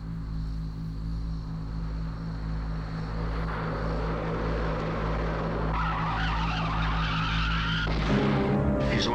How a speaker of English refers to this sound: Yeah, that's what I heard just before the tire blew out. You're right, it was a shot.